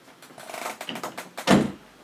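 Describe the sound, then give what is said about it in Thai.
Soft shuffling and handling noises lead into a single firm thud near the end, like a door being pushed shut, with no talking. “เดี๋ยวปิดประตูแป๊บหนึ่งนะ”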